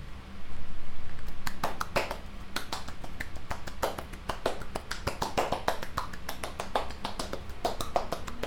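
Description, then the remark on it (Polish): Crisp tapping and rubbing on a dummy-head microphone as its face, one ear, the other ear and the back are touched, a rapid irregular series of sharp clicks and brushes over a steady low hum from a fan, with no talking. “Tak, dotykam twarzy, dotykam jednego ucha, drugiego, dotykam tyłu”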